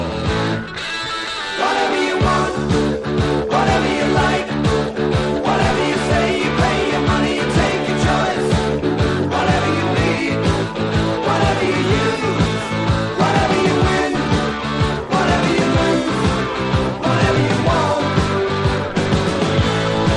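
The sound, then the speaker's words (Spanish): A full-band rock song plays from a vinyl record spinning at 33 rpm, loud and steady for the whole stretch, with driving rhythm and dense instrumentation and no talking over it. “Pues no lo hemos dicho, este tema está sonando en un formato muy especial. Está sonando en... En vinilo.”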